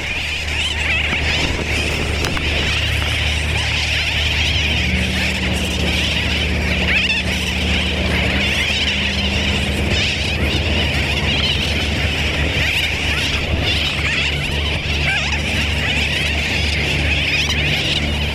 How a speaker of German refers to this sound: Und ich schaute mir Vögel an. Um die 50.000 schätzungsweise. Das klang dann so.